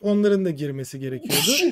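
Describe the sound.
A man talks briefly, then lets out one loud, sharp sneeze right at the end, a sudden burst of breathy noise.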